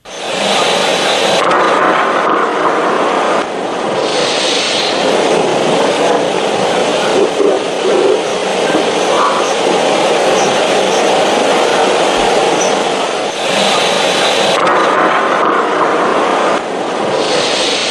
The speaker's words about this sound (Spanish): Pues ese es el sonido de la explosión eh, que es eh, paralelo a la iluminación eh, del cielo de Sevilla. Esa descripción que se hace de que la noche se hizo de día no es una exageración,